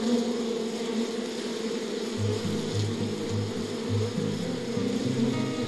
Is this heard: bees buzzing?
yes